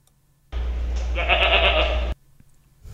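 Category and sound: animal, goat bleating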